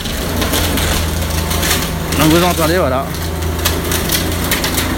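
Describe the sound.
A demolition machine's jaws crush a house with steady crunching and splintering over a low engine drone, while the wreckage is sprayed with a water jet to keep dust and debris from flying. A man speaks briefly midway through the din.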